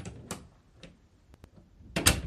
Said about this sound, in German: Na, schön Tür zu.